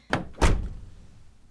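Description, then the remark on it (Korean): A car door is slammed shut by a woman getting out of the car: two quick thuds, the second heavier and booming, followed by a short fading rumble. No one speaks. “차 문 닫히는 소리에 깜짝 놀라 밖을 보니, 그녀가 집으로 걸어가고 있었습니다.”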